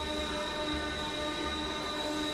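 A train's automatic braking system engages and the train comes to a stop, with a steady, high-pitched metallic squeal of brakes on the wheels, loud and continuous throughout, with no voices.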